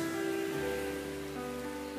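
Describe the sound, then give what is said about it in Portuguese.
Heavy rain pours down in a steady, dense hiss, with a low constant hum running underneath and no voices present. “porque está chovendo muito.”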